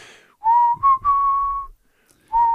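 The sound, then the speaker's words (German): A person whistles a slow, steady pop song melody in clear sustained tones, several held notes separated by short breaths, fairly loud with no talking. “… von …. So, und da müssen alle zusammen pfeifen.”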